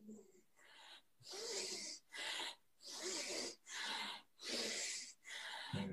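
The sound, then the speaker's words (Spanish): Heavy, rhythmic panting from someone exercising at peak intensity, with about six loud, raspy breaths in quick succession, each a harsh wheezy rush of air. “incluso se te oye ahí, en, el pico de la montaña.”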